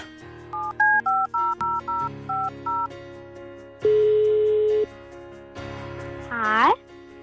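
A quick series of electronic keypad beeps as a phone number is dialed, followed by a long steady ringing tone, another tone, and a rising electronic chirp as the call connects.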